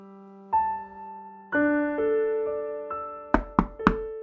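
household object, knocking on a door

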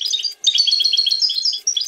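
bird, goldfinch song

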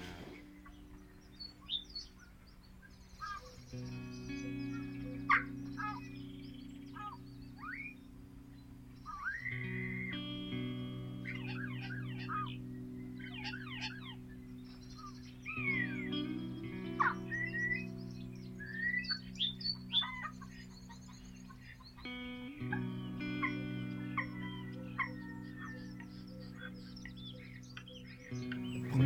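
bird, spring birdsong

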